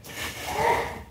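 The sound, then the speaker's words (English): A single sneeze from somewhere in a church audience standing for a Bible reading, a brief, breathy burst that swells and fades within about a second, with no talking over it. “Are we ready? Bless you.”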